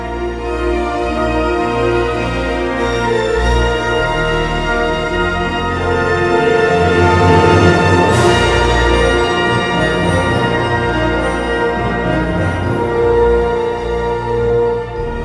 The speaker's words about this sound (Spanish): es que este es uno de los temas más impactantes de la película. Ya dijimos que toda la película gira en torno al tema del parque y de los dinosaurios, ¿no?